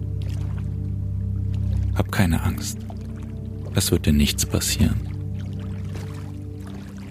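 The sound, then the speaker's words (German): Footsteps wade into lake water in two short bursts of splashing and sloshing, while a person speaks calmly over a steady low background rumble. “Schließ die Augen und lauf weiter ans Wasser hinein.”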